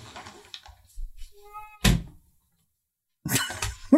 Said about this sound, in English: Just slam the door in her face.